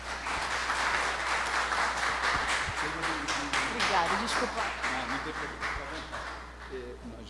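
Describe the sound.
Sustained audience applause fills the room for several seconds as a woman is handed the microphone, a dense wash of many hands clapping, with a voice speaking faintly underneath as it begins to fade.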